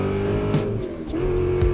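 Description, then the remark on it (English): A car engine revs hard and accelerates as the driver floors it on a long, elevated road in Mississippi, its pitch climbing, dipping briefly at a gear shift, then rising again. Loud, with no talking. “There's nowhere really to pull over, and he just gasses it.”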